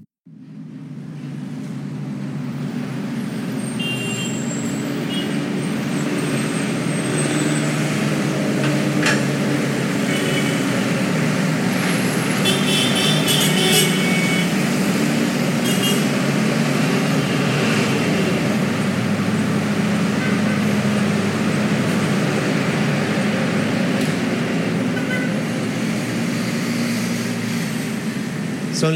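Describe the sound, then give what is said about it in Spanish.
Busy city traffic roars steadily and loudly at the intersection of Avenida Oriental and Calle Caracas at 4:55 in the afternoon, a dense, unbroken rumble of car and motorcycle engines with brief higher-pitched car horns cutting through now and then. No one speaks. “Los pitos de los carros y el motor de algunas motocicletas son la infaltable canción de todos los días”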